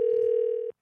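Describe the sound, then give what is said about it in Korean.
A steady, unbroken telephone dial tone as a radio show places a call to a listener, humming loudly for about seven tenths of a second, then cutting off abruptly into silence, with no voices present. “2248님 전화 한번 걸어보겠습니다.”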